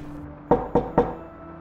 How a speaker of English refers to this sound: The two sauntered to Sal's room around the corner and knocked on the door.